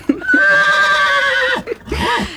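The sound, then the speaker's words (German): A horse whinnies loudly, a long quavering neigh that trails off, followed by a shorter, rougher whinny. No one speaks. “Ich sehe da hinten ein Pferd.”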